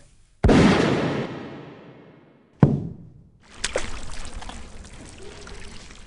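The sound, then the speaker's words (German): A loud, sharp gunshot rings out and echoes away, followed by a second sharp crack, then a heavy splash as a person falls into a swimming pool at a villa, water churning and sloshing for a few seconds, with no voices. “Plötzlich fiel ein Schuss.”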